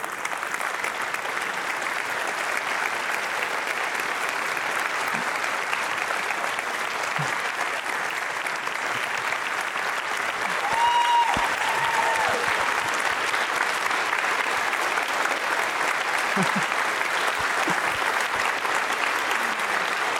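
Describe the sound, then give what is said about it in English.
An audience applauds a guest called up on stage, steadily for about twenty seconds, a dense, even patter of many hands clapping, with a brief whistle rising above it around the middle and no speech. “I forgot to mention, I, she did ask that there would be no applause.”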